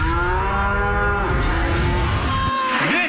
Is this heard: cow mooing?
yes